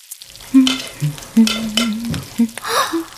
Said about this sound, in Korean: 그날 테라장은 계란 프라이를 세 개 붙이고 프라이밖에 모르는 누리에게 다른 요리를 해주고 싶어 스크램블드 에그를 만들었다.